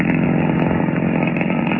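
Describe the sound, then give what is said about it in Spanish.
A modern sports car drives along a dusty, lonely road through the countryside at night in dense fog, in the county of Sussex; its engine drones steadily, a loud, continuous buzzing roar with a gritty, rasping texture and no pauses or changes in pitch, heard alone without voices. “Tiempo después, la tormenta había cesado y Calimán conducía hábilmente el moderno auto Sport por aquel camino polvoso y solitario.”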